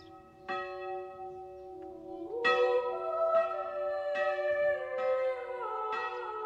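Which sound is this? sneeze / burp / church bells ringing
church bells ringing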